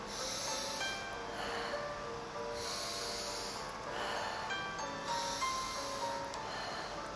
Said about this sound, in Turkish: Burnumdan nefes alıyorum, ağzımdan veriyorum.